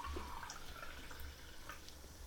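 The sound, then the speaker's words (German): Someone drinks water: soft liquid sounds with a few small sips and swallows scattered over a couple of seconds, quiet throughout with no talking. “trinkt mhm. gerade. Wasser.”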